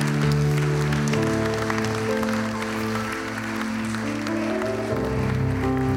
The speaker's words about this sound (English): Come on, can you give him a hand clap of praise in here today?